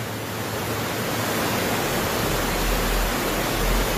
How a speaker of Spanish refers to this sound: Qué pasada, que se me está metiendo el agua hasta en la casa. En Bluefields, varios barrios se inundaron producto de las lluvias.